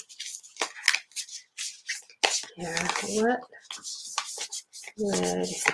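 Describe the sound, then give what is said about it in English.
Crisp rustling and flicking of stiff, thick cards being shuffled in uneven bursts during a card reading, with a person briefly speaking over the handling noise partway through and again near the end. “Like I said, these are thick cards, so I'm trying to shuffle them the best I can.”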